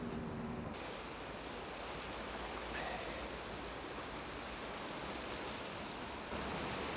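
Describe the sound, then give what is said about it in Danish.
A steady, powerful rush of water under good pressure pours through a sluice, a dense continuous roar filling the whole clip without pause. The sound is loud, with no voices. “Der er godt tryk på vandet.”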